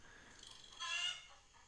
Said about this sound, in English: No, that's that's a rooster somewhere in the background. That's a squirrel. That's a squirrel. Are they vivisecting it? What is happening?